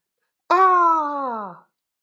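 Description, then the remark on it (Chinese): A single loud, voiced cry of pain, about a second long, starting high and strained and sliding steadily downward in pitch before cutting off. A storyteller voices the queen's scream as a lump of mud with a sharp stone strikes her eye and she falls to the ground; silence surrounds it. “一声惨叫，一个屁股墩儿啊就坐地上了。”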